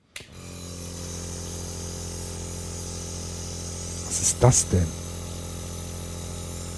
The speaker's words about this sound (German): Das ist doch der Kompressor, oder nicht?